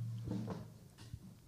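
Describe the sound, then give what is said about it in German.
A low, drawn-out wooden creak from a chair shifting under someone's weight, with a few soft knocks and groans. It is quiet and sits in the background with no voices. “nach wie vor so, dass du nicht furzt, sondern das ist der Stuhl, der immer diese Geräusche macht im Hintergrund.”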